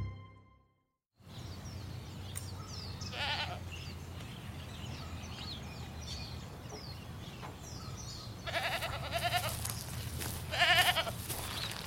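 Goats bleat several times over a steady outdoor farmyard background, with a short call early on and louder, wavering bleats toward the end. Faint birdsong chirps.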